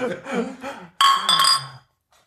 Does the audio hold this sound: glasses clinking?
yes